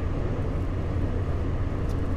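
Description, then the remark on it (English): Steady low rumble of a car cabin while driving, a constant engine and road drone with a faint airy hiss above it, fairly quiet and unbroken, with no voices. “But um, yeah, it, it's a quieter car.”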